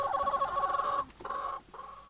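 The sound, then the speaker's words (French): Chickens cluck and warble in a busy chorus inside one of the three henhouses of the Imbert farm in Urbais, a steady burst followed by two shorter ones with brief dips between, all without any talking. “Dans cette chronique, je vous invite à pousser la porte de l'un des trois poulaillers de la ferme Imbert à Urbais”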